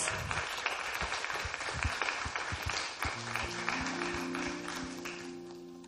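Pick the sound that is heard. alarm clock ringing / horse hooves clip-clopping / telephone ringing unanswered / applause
applause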